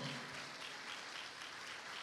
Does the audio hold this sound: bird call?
no